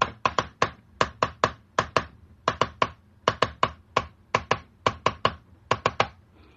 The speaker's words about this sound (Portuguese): Correios, no código Morse, se escrevia com este som.